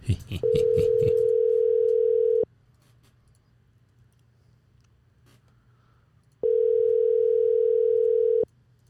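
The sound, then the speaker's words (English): An outgoing phone call to a man on a Friday, ringing on the line while waiting for him to answer: two long, steady ring tones about two seconds each, separated by a quiet pause, with brief voices at the very start. “I don't know if he'll answer.”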